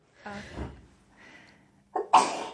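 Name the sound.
sneeze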